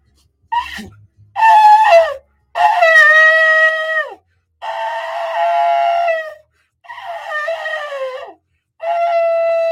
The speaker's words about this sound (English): I almost forgot to blow the blow the shofar. It says, blow the trumpet and sound the alarm. Amen. Here we go.